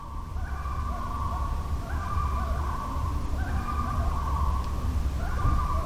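Two loons on separate sides of a small lake trade long, wavering wails across the water, their mournful calls overlapping and answering each other over a steady bed of wind-like noise and low rumble.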